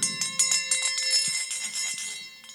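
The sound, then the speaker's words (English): A small bell tied to a string leading down into a coffin rings at the ground surface of a grave, rapidly and continuously, its bright metallic tones repeating in quick strikes that overlap into a steady jingling, clear with no voices. “a bell would begin to ring on the ground surface.”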